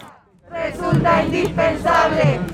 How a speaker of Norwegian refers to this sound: Demonstrantene roper at det er staten som står bak drapet på Facundo.